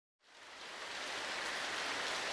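Heavy monsoon rain pours down steadily on the fertile soil of the Ethiopian Highlands in northeastern Africa, a dense, continuous hiss of drops pattering on the ground, rising quickly after a brief silence and staying loud throughout.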